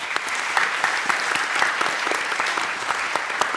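Steady applause from the audience at a forum, many hands clapping in a dense, continuous patter with sharp individual claps popping out, sustained at an even, fairly loud level throughout with no voices.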